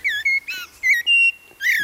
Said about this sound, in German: Naja, natürlich. Das ist eine singende Amsel. Das ist richtig.